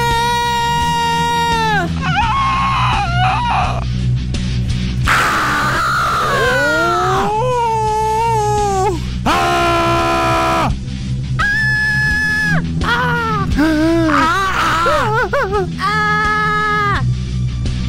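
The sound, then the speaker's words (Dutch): A person imitates the scream of Munch's The Scream, letting out a series of drawn-out, wavering anguished screams, loud, their pitch rising and falling in agonised wails over a low steady drone, with brief pauses between bursts. “De schreeuw. Eindelijk. Voorzien van klank.”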